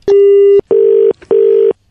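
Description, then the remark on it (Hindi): Three loud, steady electronic tones in a row, each about half a second with short gaps between, a phone line's disconnect signal as a call is cut off by the network. No one speaks. “hello network बड़ा आजकल cut जाता है फोन ना भाई साहब”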